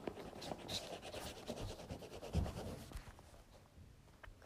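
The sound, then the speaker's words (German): A pen scratches steadily across paper in short, repeated strokes as a plan of the next kill is drawn, a dry rasping rhythm with one heavier tap partway through, and no voices. “Ich zeichne mal den Plan vom, von dem nächsten Kill.”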